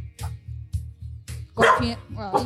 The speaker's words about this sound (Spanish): Ahí siguen al fondo a los ladridos de mi perra. Ahí para que la escuchen.